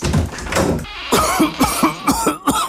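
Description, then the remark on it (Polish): A series of harsh coughs in quick succession, loud and chesty, with a rough burst at the start followed by several sharp hacks in an uneven rhythm, in an advert for Mukosolwan cough syrup. “Nie chowaj się, niech kaszel się schowa.”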